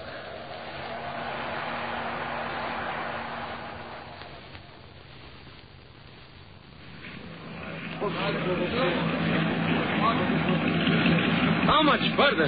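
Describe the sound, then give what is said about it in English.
A small motor launch engine drones steadily over rough, splashing water in strengthening wind, the churn swelling louder toward the end, with muffled voices mixed in beneath the noise. “Under the sound of it, that engine needs attention.”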